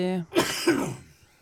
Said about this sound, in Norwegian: det blir, det blir hosting i studio.